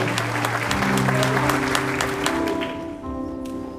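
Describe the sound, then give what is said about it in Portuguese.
An audience applauds the Lord Jesus Christ with steady, dense clapping, while sustained keyboard chords hold underneath; the applause thins slightly toward the end. “Você pode aplaudir o Senhor Jesus Cristo, porque você nele é mais do que vencedor e vencedora.”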